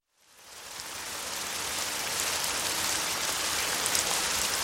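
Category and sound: nature, heavy rain falling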